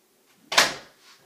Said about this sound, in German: Und ich mache kurz hier noch die Tür zu.